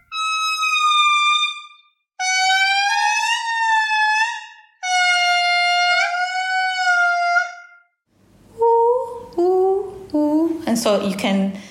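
Indri lemurs sing in chorus at dawn from all parts of a forest above the morning mist: loud, drawn-out wailing howls rich in overtones, three long sliding notes, then a quick run of shorter, rising calls that climb in pitch, with no talking.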